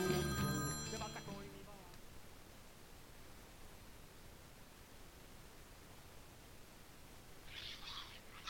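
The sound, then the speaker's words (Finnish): A phone rings with a bright, harmonic electronic tone for about two seconds, then cuts off, leaving a steady hiss of static and a faint brief chirp near the end. “Mä katsoin ensiksi ihmettelin, kun tää soi tällä ihmeellisesti, mutta se olikin ton takia, kun sulla on tommoset ihmeelliset puheet.”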